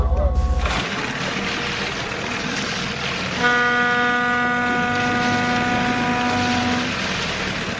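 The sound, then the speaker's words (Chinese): A freight train horn sounds one long, steady blast for about three and a half seconds, a loud, rich, buzzy tone held at a constant pitch over a low background rumble, from a cargo-laden train departing on the Longhai Railway at Lianyungang, China, bound for Kazakhstan. “一辆火车满载货物，将要从中国运往哈萨克斯坦。”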